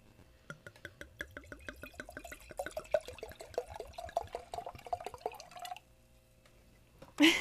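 Cabernet Sauvignon wine glugs steadily into a glass for about five seconds, the rapid gurgling pulses rising in pitch as it fills, then stops, followed by a brief sharp sound at the end.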